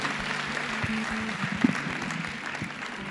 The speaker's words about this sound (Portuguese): Amém? Glória a Deus. Aplauda ao Senhor.